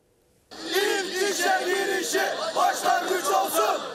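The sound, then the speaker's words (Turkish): A protest crowd of internship and apprenticeship victims, left out of the EYT retirement law, shouts together in a loud, dense roar of many voices. It starts abruptly after a brief quiet moment, then keeps going with rising and falling chant-like bursts. “Onlar da bugün seslerini yükselttiler.”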